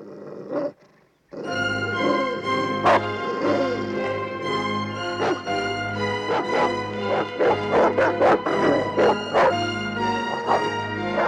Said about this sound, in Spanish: bueno, es un perro bravo, complicado.